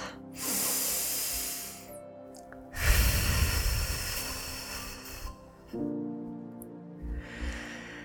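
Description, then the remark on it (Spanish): A slow, deep breath during a guided tapping session: a hissing inhale through the nose, followed by a longer, fuller, breathy exhale through the mouth, over soft sustained background music. “Haz una respiración profunda, inhalando por la nariz y exhalando por la boca.”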